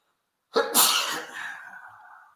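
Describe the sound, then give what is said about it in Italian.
A single loud sneeze from an allergy bursts out suddenly, a sharp inhaled catch followed by a forceful explosive release that trails off into a breathy fade. “Mi viene l'allergia a vedere.”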